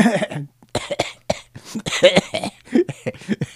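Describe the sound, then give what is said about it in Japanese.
Someone clears their throat several times in quick succession, a string of short, rough, cough-like bursts with brief gaps between them and no talking. “まあでもとサイド B でお会いしましょう咳 払いで終わるって”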